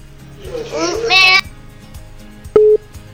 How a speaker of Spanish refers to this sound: Bueno, lo que pasa es que cuando nos timbran, bueno, otra vez pongo el celular en modo avión para no,